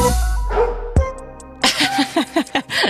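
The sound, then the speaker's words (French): A small dog, one of Julien Doré's dogs Simone and Maurice, barks in a quick series of short, high-pitched yaps, clear, following a brief sustained tone and a sharp knock. “Le ce, Ce, petit waf de Julien Doré.”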